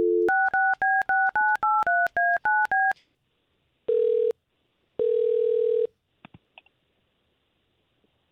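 A phone call being placed: a quick run of about ten touch-tone dialing beeps, followed by two long electronic ringing tones on the line and a few soft clicks, all clear with no voices.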